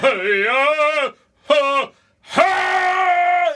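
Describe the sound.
A voice imitates distant screaming of someone inside the Capitol: three drawn-out, wailing cries separated by short pauses, the last one longest and sustained, sounding strained and somewhat muffled as if from far away.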